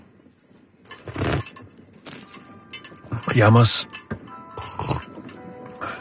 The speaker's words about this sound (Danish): Åh, oh, hvad er det? Kan du køre det? Det er en kane, der bliver trukket af, oh, ja. af heste.